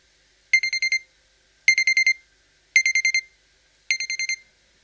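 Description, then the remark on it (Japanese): An alarm clock beeps in four evenly spaced bursts, each a quick run of about five sharp, high-pitched electronic pips, clear with silence between. “ピピピッと目覚ましのアラームが鳴る音で目が覚めた。”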